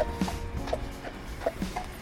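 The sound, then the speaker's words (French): Steady rhythmic clopping of a horse's hooves on a hard road as it pulls a carriage, several hollow knocks in a walking cadence, over a low rumbling background like cart wheels. “ah j'ai entendu les sabots”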